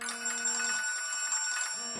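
A telephone rings with a steady electronic tone that cuts off briefly and then starts again, sounding fairly close and clear with no voices over it.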